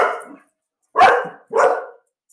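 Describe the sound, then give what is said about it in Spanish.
A dog barks three times, with a pause after the first bark and then two loud barks in quick succession. No one speaks. “Perdón, alerta de perro.”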